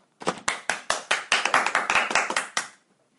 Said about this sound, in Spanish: Bueno, y terminamos la mañana. ¡Un aplauso!